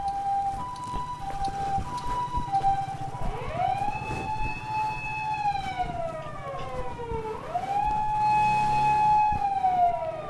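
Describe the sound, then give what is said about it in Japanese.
An ambulance siren wails outside, its tone sliding down and back up in long sweeps, growing somewhat louder toward the end over a steady low hum of traffic. “結構救急車も多い”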